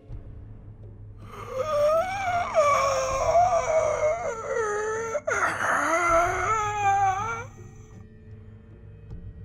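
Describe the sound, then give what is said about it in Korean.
A harsh, grating cry with a rusty, bird-like screech from a creature with black eyes lacking whites, an upturned pig-like nose and an unnaturally large mouth: two long strained wails rising and wavering, loud, separated by a brief break over a low rumbling background. “성대가 녹슨 쇠붙이 따위로 만들어져 있다면 그런 소리가 날까? 새소리가 소름이 돋을 지경이다.”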